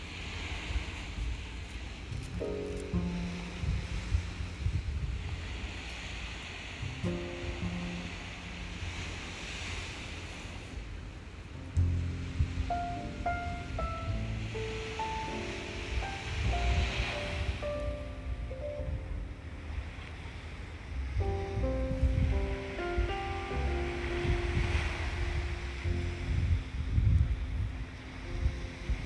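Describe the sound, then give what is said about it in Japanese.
Ocean waves wash onto a sandy shore facing Mount Fuji in steady, rolling surges, with wind buffeting the microphone and a low engine hum underneath from boats heading out to fish. No one speaks. “今日は単純に海の音を聞くだけのラジオです”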